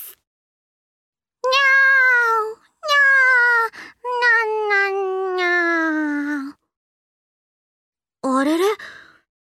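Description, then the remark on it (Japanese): A cat meows four times: two short calls, then a long, drawn-out wavering meow, and after a pause one last brief, rising mew. “今日のコラムの主役は可愛くっていつもニャーニャー言っている猫ちゃんです”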